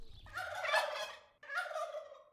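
A turkey gobbles in two loud, warbling bursts, the first longer and the second shorter after a brief pause, with no talking.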